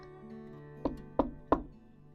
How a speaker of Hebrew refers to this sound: והנה דפיקה בדלת.